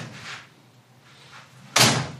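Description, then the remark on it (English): A door rattles and shifts as a cat jumps onto its handle: two soft scuffs, then a sudden loud clunk of the door moving that fades quickly, with no talking. “The cat's doing the cat thing, which is jumping on the uh, handle of the door as I just hangs there going, ah,”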